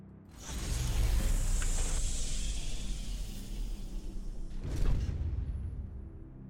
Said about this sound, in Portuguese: ninguém fala nada, eles simplesmente clica em um botão e a porta se fecha.